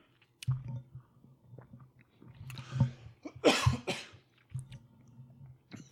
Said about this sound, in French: J'ai mal avalé ma gorgée de Pepsi, excusez.